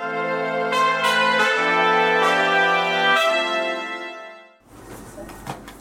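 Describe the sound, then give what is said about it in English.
A door creaks open with a long, loud, drawn-out squeal that shifts in pitch for several seconds, then gives way to softer, scuffling noise: a sound effect for the door of the photographer's room of the Morning Express newspaper opening as reporter Madison Standish enters. “The door opens and reporter Madison Standish enters.”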